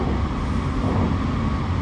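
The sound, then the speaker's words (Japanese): A steady, loud low rumble with a dense mechanical roar fills the space, the sound of a moving train heard from between carriages, constant with no pauses or voices. “今車両と車両の間のところで、いますけど、はい、結果2時間ぐらい立ちっぱなしでしたね”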